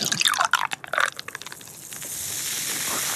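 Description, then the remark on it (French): A fizzy drink is poured, with splashy, gurgling liquid bursts in the first second giving way to a steady hiss of carbonated bubbles fizzing on its own. “Ou alors une boisson plus pétillante.”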